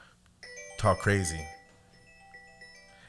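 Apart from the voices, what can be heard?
phone notification beep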